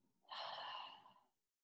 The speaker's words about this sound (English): In through your nose, Hold at the top. Exhale through your mouth.